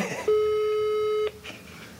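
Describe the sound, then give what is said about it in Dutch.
A telephone ringing tone as someone calls a girlfriend: one steady, low-pitched buzzy tone holds for about a second and then cuts off, followed by faint rustling. No one speaks. “ik moet even mijn vriendin bellen, denk ik.”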